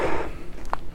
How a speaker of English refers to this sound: I don't know if you can hear my feet, but sorry, I'm walking in the woods right now.